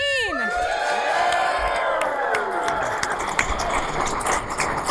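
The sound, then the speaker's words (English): A large crowd at Dragon Con 2015 cheers loudly and steadily for the hosts of a live show, a dense roar of many voices with high whoops and shouts rising over it at the start, continuing without a break. “We have people cheering for yeah, us.”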